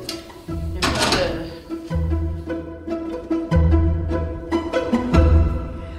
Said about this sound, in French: ça, c'est le système D. On va juste fermer la porte comme ça.